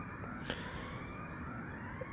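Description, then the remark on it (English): A siren sounds in the city, a steady high-pitched tone holding over a constant rumble of traffic noise, with no one speaking. “Now I might just I might just wait and see if this siren is going to is going to keep going”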